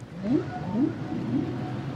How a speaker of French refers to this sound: Le chant des baleines bleues, le chant des baleines à bosse, le chant des baleines de mink, le chant des rorcales communs.